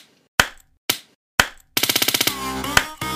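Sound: single hand clap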